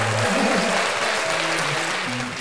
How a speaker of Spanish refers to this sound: te mereces un aplauso.